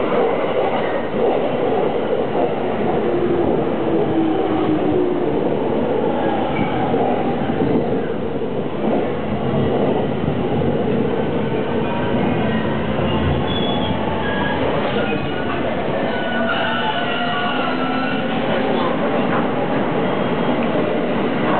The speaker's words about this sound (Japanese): まもなく1番線に各駅停車中野行きが入ります。危ないですから、黄色線までお下がりください。 本日もご利用いただきましてありがとうございます。今度の2番線の電車は16時8分発。